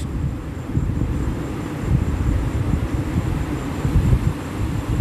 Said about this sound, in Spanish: Quiero que escuches el sonido del mar.